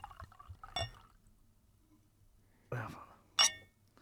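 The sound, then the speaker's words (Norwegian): Wine, a Giovanni Rosso Barbella di Alba, poured from a bottle into a glass in a studio in a few short, splashy gurgles with light clinks of glass, fairly quiet against a low background hum. “ser på at jeg heller vin oppi et glass.”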